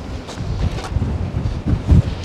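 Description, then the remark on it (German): Gusty wind buffets the microphone outdoors, a steady low rumble with louder surging bursts, fairly loud, with no voices over it. “Man hört den Wind also schon.”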